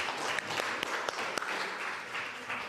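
Steady audience applause fills the whole stretch, a dense wash of many hands clapping with a few sharper individual claps standing out, no voices on top.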